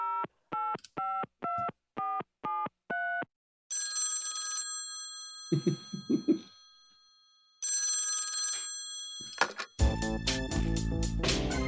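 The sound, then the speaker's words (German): A short telephone-themed jingle for a phone-a-friend (Telefonjoker) segment: a quick run of dialing tones, then a bright ringing phone bell, a brief laugh, more ringing, and a busy musical flourish at the end, all loud. “Den Jingle habe ich gar nicht mehr im Kopf gehabt, der ist ja grandios.”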